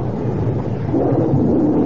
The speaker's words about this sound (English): Any port in the storm? oh, sure is raining.